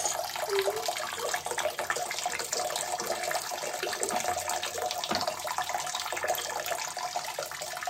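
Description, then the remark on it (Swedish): A steady stream of urine from a person urinating standing up splashes into toilet water, a continuous trickling hiss that holds at an even level from start to finish with no voices. “det här är fan bra skval. Alltså. Du träffar ju vattnet. Ja, men det var ju för att jag ska kissa som en man.”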